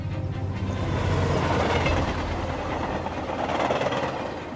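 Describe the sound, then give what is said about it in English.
A train travelling to Marion, Ohio rumbles along the rails at steady volume, a dense low roar with rhythmic clattering and mechanical rattle throughout, continuous with no voices. “Mellon takes a train to Marion, but no one in the depot shows up to meet him.”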